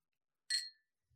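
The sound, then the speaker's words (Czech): A single bright clink of glasses touching in a toast, ringing briefly before fading, heard on its own with a faint low thud just after. “A uh, přátelé, připijeme samozřejmě i vám.”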